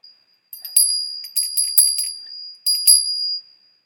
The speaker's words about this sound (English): Remember, we ring the bell.